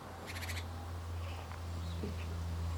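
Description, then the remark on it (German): A cat sitting beside the speaker, excited after seeing a few birds, chatters at them: a quick, short burst of rapid clicking, fairly faint, over a steady low hum, then a few soft chirpy sounds. “Der hat gerade hier ein paar Vögelchen gesehen und ist ganz aufgeregt und schnattert ein bisschen vor sich hin und macht ganz große Augen.”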